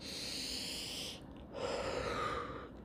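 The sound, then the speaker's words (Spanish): A person demonstrates slow, calm, normal breathing: one long, airy inhale, a brief pause, then a longer steady exhale, with no talking. “Uno está tan preocupado que no te das cuenta que en lugar de tener una respiración así como”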